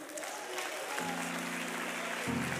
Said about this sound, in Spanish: Aplauda al Señor.